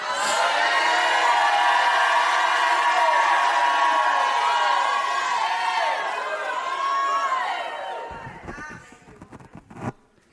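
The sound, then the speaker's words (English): A large audience erupts in sustained shouting and cheering, a loud, dense wall of voices that holds for several seconds before thinning into scattered whoops and fading. “I'm going to stop till somebody shouts in this place.”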